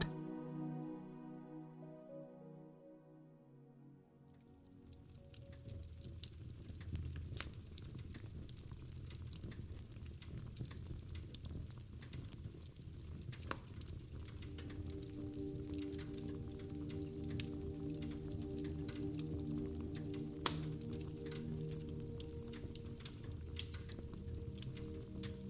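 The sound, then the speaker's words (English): A soft musical tone fades out, giving way to a crackling fireplace: dense, irregular pops and snaps over a low, steady rumble, continuing evenly with no voices. “Sound design: crackling fireplace”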